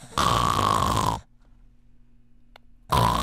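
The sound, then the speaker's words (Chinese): A doctor imitates open-mouthed snoring, the open mouth vibrating the soft palate, in two loud, rasping bursts, the first lasting about a second, separated by a quiet pause with a faint low hum. “那我用一个也许不是太适当的方式来比喻，就是说，如果是鼻子发出来鼾声，如果是就像你打网球，你用 反手拍打，这个力道也许不是最强。”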